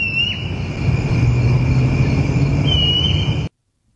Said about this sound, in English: it identified the crickets in the background.